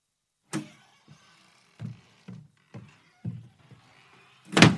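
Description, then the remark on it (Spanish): A door is shut: several soft, low thuds and bumps in an uneven rhythm, then one loud, sharp slam at the end. No one speaks. “Sintiéndose burlado, intentó atrapar al pájaro y mientras el cuervo volaba por la habitación y quiso salir por la puerta, pero el gran jefe fue hacia allí a cerrarla.”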